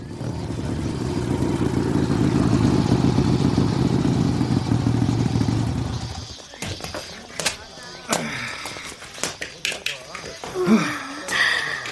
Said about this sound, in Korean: 오토바이 노아 선배다.